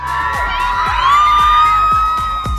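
Hundreds of fans scream and shriek continuously outside a celebrity wedding's Friday rehearsal dinner, a dense wall of high-pitched excited voices with a steady rhythmic thumping underneath, loud throughout.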